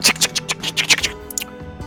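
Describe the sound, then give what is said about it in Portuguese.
A quick run of sharp metallic clicks and clacks, like several door locks being unbolted one after another, fairly loud, with no one speaking. “E você escuta um montão de trancas sendo destravadas.”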